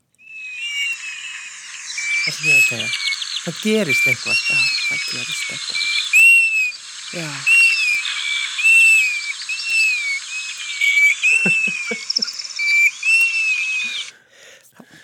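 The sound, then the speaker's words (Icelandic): A golden plover's plaintive whistled call plays from a phone, repeating as short high notes about every second over a steady hiss, while people talk briefly over it. “Og þú ert með hérna mitt í símanum þínum Já, ég er sko með hana hérna með mér að Því að, eh, sko, þegar maður heyrir í lóinni”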